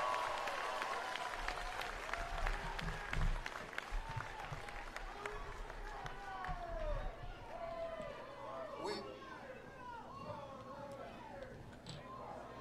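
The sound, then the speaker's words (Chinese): A large crowd at a rally in Rose Park, Alpharetta, Georgia cheers loudly and chants together in a rhythmic, repeated phrase, "four more years", with scattered clapping and shouts running steadily throughout; a single voice briefly speaks at the start. “人们在大喊：“再干四年，再干四年！”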